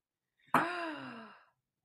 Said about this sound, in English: I listened to me gasping to go vagina cake.